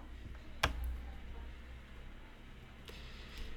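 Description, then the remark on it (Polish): A single sharp keyboard key click stands out near the start as the Easy Switch key number 2 is held down, followed later by two fainter clicks over a low background hum, with no talking. “Przytrzymam Easy Switch numer 2.”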